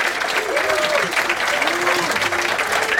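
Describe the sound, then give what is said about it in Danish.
Steady applause from thousands of people in an audience inside a tent at Kulturmødet on Mors, dense clapping filling the space at a fairly loud level, with faint voices murmuring underneath. “Tusindvis af mennesker er mødt op, som man kan høre.”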